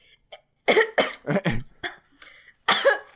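A fairly loud fit of harsh coughing: several rapid coughs in a row, a brief pause, then one more forceful cough. No one speaks.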